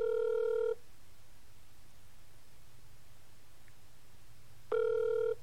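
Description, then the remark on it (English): A steady electronic ringback tone sounds twice from a phone earpiece, each burst under a second long, separated by a long quiet gap with faint low hum underneath. “Come on, answer, baby. Come on.”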